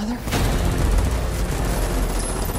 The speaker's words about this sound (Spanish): La historia va de lo mismo, los buenos contra los malos. Pelea, pelea, disparos, disparos